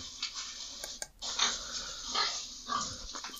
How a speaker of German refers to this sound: schmatzende Schweine sehe ich hier vor mir. Schweine quieken. Hier, das könnte besser sein.